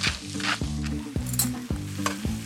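Hot juices left in the pan from roasting chicken sizzle steadily, a dense crackling hiss with repeated scraping strokes as the contents are stirred, roughly every half second. No one speaks.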